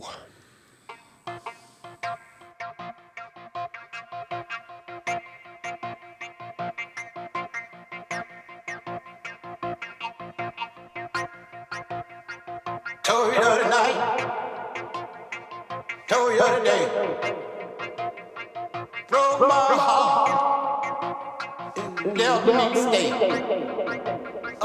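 An electro blues remix plays with a steady, punchy electronic beat under sustained melodic tones, growing fuller and louder in the second half with recurring dense swells.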